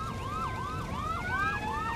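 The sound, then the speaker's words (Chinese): A fire engine siren wailing in quick, rising-and-falling sweeps, with a second siren tone overlapping it, loud and steady over a low engine rumble, as firefighters arrive to fight a blaze at a ghost train ride. No one speaks. “消防赶来开始救火。”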